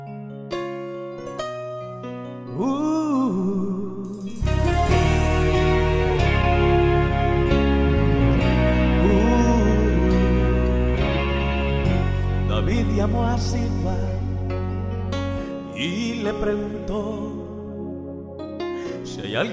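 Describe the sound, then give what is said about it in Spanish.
A full, steady band plays loud Christian worship music, with deep sustained bass notes, bright keyboard or guitar chords and a melodic singing voice gliding over the top throughout. “Así que bueno, a esta hora queremos que antes de conectarte con nuestros pastores puedas escuchar la buena música, la que te conecta con el reino de Dios.”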